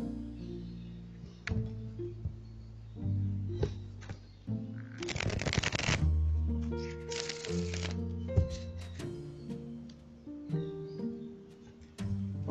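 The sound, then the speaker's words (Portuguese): Crisp riffling of a deck of cards being shuffled for a card reading in two bursts, with sparse taps and soft handling noises around them over a faint tonal background. “Agora eu vou esclarecer a leitura com o baralho de vaqueta.”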